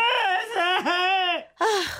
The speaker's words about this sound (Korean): 그날 불만이 폭발해서 어, 아빠 미워 미워를 외치며 울며 지쳐 잠들었는데요.